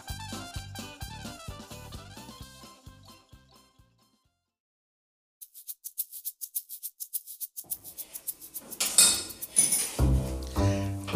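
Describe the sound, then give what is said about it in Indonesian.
A brief tinkling melody fades to silence, then spoons and forks clink together in quick, repeated taps that grow busier and louder toward the end, with no voices. “sama seperti yang Paman Giri sedang alami hari ini, yaitu tentang sendok dan pasangannya garpu yang jumlahnya selalu berbeda”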